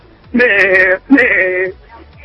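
Two loud sheep bleats in quick succession, each a drawn-out, wavering cry lasting over half a second, separated by a brief pause.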